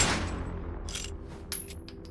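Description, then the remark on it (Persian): A loud gunshot, a bullet fired into a man's chest, cracks at the start and rings out, followed by a few fainter sharp reports or echoes over the next two seconds, with no voices. “به خاطر همین رفت خونه لاتسا پاپا و یه گلوله تو سینش شلیک”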